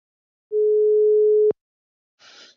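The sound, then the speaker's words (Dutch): A telephone ringback tone sounds once, a steady one-second electronic beep for an outgoing call, followed after a short silence by a brief soft rustle like a line being picked up. “gaan we nu bellen met Jan over de laatste stand van zaken in informatie”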